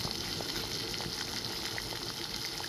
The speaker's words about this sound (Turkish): Kaynadı. Kaynadı şimdi ne yapıyoruz?